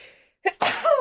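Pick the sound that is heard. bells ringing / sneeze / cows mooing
sneeze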